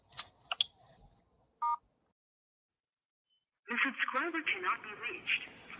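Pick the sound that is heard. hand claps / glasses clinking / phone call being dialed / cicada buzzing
phone call being dialed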